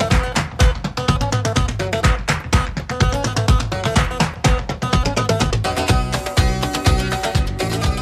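Loud, upbeat music plays on its own as a segment cue on the radio programme Café con Gotas, with a steady driving beat and full, dense instrumentation. No one talks over it.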